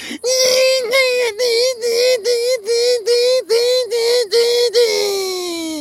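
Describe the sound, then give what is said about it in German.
A voice loudly imitates the buzzing call of a Japanese cicada (semi), a high, nasal drone pulsing in about ten rapid, even beats before trailing off in a long falling whine. “Ey, ich bin in Japan aufgewachsen, ich sag's dir, du glaubst nicht, wie laut diese Semi werden. Also die heißen Semi, diese Zikaden.”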